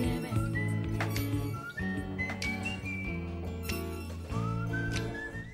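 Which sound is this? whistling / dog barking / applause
whistling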